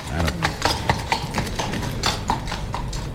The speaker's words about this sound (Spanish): Ya se ha ido el caballo de la puerta, como hemos escuchado, y lo hará ahora el, de turno.